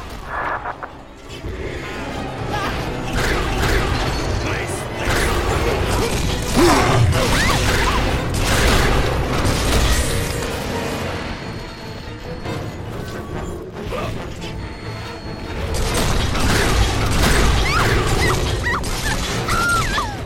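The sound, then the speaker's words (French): A bathyscaphe's heavy metal release mechanism clanks and grinds continuously, with creaks, rattling impacts and a dense rumbling underneath, loud for the whole stretch, surging again near the end. “Tu peux libérer le batiscaf.”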